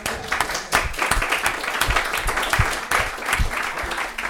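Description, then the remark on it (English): An audience applauds with a dense, steady wash of many hands clapping, loud and sustained for a few seconds without any talking over it. “I, I, I think that actually deserves an applause.”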